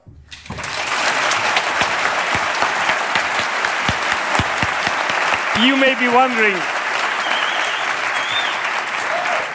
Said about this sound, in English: You may be wondering why I'm clapping.